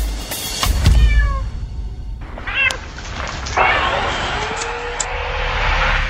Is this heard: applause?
no